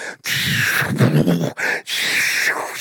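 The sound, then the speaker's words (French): A person vocally imitates people screaming in a war, letting out a few loud, strained, drawn-out cries in quick succession, with no other sounds around them. “Ah, ça crie, c'est malade.”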